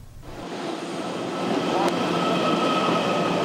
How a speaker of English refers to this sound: Luggage in tow, passengers wait in line to board. This Puyuma train, like the Taroko, is nearly synonymous with East Coast travel.